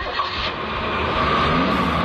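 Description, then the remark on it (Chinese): A car engine rumbles and revs steadily for about two seconds as a boy's whole family gets in the car to flee, a dense, continuous roar with no pauses and no voices. “一个男孩全家人坐上汽车逃跑了。”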